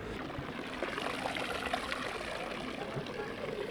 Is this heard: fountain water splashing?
yes